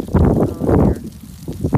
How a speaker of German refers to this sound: Not happy with that wind. So eerie. So worried about my beautiful city.